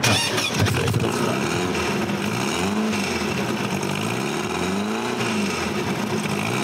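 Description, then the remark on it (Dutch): An old car engine, recorded just outside the front door, cranks and catches, then settles into a steady, throaty idle with occasional swells in revs, loud throughout with no talking. “Dit is echt gewoon net voor de deur opgenomen. Het is echt karakteristiek geluid, hè?”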